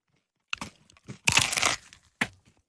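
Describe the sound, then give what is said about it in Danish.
Someone bites into crunchy crispy fried pork, followed by a burst of loud crackling chewing and one more sharp crunch, with no talking. “tager tak, lige en bid, så tager vi en nyhedsudsendelser.”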